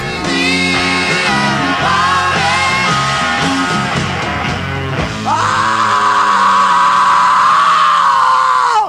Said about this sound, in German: Schrei alleine ist ja heute sozusagen ein akustisches Denkmal der Rockmusik.